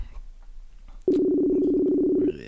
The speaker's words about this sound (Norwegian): summetonen er, den er fin, altså.